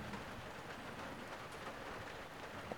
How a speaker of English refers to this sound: As you might be able to hear, there's a lot of rain coming down here.